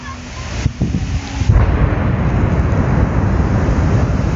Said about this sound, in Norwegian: Klokken 1925 eksploderer Anders Behring Breiviks 950 kilo tunge gjødselbombe i regjeringskvartalet.